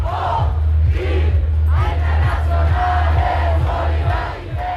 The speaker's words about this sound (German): Irgendwann knallen Feuerwerkskörper und ein Pulk Menschen schiebt sich durch einen anderen Pulk Menschen. Das müssen die Revolutionäre sein.